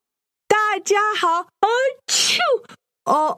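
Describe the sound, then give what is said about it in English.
A woman acts out several exaggerated sneezes, loud, with drawn-out voiced 'ah' build-ups and a breathy burst, separated by short pauses. “Achoo!”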